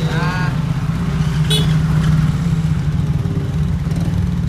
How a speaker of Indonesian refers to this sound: Kau bikin apa dorong motor sampai ke belakang gitu? Kau bisa starter langsung dari sana tadi.